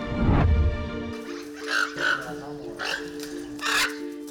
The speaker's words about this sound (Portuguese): Aves que se chocaram com obstáculos e desenvolveram graves problemas neurológicos, como essa outra arara.